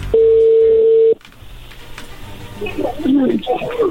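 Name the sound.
telephone dialing tones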